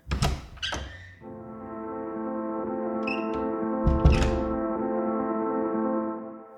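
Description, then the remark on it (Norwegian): A woman knocks a couple of dull times on a door, and when no one answers, the door clunks and rattles open a few seconds later as she walks in, all over a steady low droning tone. “Venninnen banker på, men det er ingen som svarer så hun går bare inn.”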